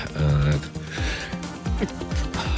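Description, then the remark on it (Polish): A male radio host sneezes on air while reading out the day's name days, a sharp, loud, breathy burst that stands out from the surrounding noise, with some voiced, snort-like sounds around it. He says it is not the coronavirus. “na zdrowie sobie muszę powiedzieć.”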